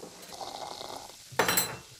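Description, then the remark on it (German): Water is poured into a bowl holding about a quarter pound of flour and a pinch of salt, with a soft, steady trickle, then a brief louder splash near the end. The sound is moderately quiet, with no talking. “Aber jetzt muss ich ein wenig Wasser hinein.”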